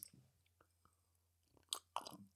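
Someone takes a sip from a drink: a few soft mouth clicks, then two louder wet slurping gulps, with no talking.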